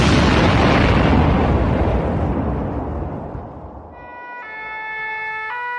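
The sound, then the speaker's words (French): A gas cylinder, one of many in an apartment, is shot at and explodes in a loud blast. Its roar rumbles and fades over a few seconds before an emergency siren starts wailing in steady tones. “tire sur une des nombreuses bonbonnes de gaz qui occupent mon appartement”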